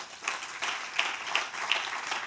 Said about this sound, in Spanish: Le un aplauso al Señor esta noche.